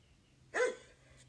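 small dog barking

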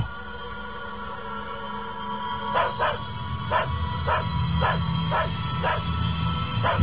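dog barking incessantly

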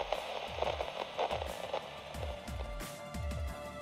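radio static hiss

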